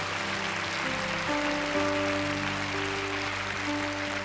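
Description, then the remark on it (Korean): Steady audience applause offered as glory and thanks to God, a dense wash of clapping that holds for several seconds, with sustained keyboard or organ chords ringing underneath and no voices. “우리 하나님께 영광과 감사의 박수 올려드리겠습니다.”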